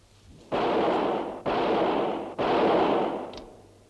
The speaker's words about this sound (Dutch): schoten lossen.